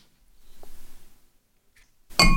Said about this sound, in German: Klingt nicht so schön heute. Auf äh, alle frischen Azubis. Prost. Stößchen.